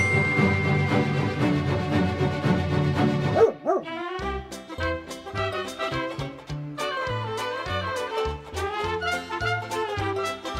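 A dog barks and yips in a quick run of repeated, tonal bursts at shifting pitches, preceded by a sustained droning tone and a brief rising whine. No one speaks.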